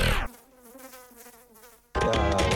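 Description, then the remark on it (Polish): A fly trapped inside a fly trap buzzes steadily for a second and a half, its droning tone wavering slightly in pitch, framed by louder bursts of other sound before and after. “A na pożegnanie, no, zapowiadana mucha w mucholocie.”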